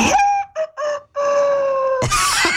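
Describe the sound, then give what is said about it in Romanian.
A human voice imitates a rooster's crow, a multi-part cock-a-doodle-doo with a few short bursts rising into a long held note, loud, followed by a noisy burst. “Asta e cocoș.”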